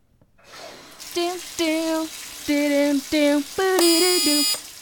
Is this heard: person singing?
yes